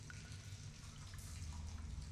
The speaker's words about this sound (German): Also abgesehen von den üblichen schwappenden Wassergeräuschen und dem gelegentlichen Tropfen von Feuchtigkeit, die von der Decke tropft, nicht wirklich.